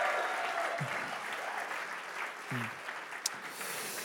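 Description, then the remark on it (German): Steady church audience applause for friends in Erlangen, a dense wash of many hands clapping at an even level throughout, with a few brief low voice fragments and a sharp clap standing out near the end. “Wir sind eigentlich eine, Kirche an zwei Standorten und lass uns nochmal unseren Freunden in Erlangen auch nochmal einen riesen Applaus geben.”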